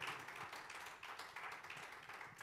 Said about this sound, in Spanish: Si le vale ese aplauso, dáselo fuerte.